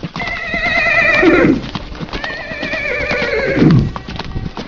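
A horse whinnies loudly twice in close succession, each neigh quavering and trailing off, while hooves clip-clop steadily underneath. No voices are present.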